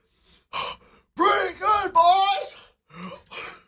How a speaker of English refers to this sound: this huffing and puffing has gotten a lot louder over here.